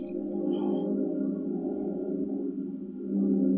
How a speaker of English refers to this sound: Hold on. There's a plane flying overhead. Uh huh. I'm sure you all heard it. Briefly.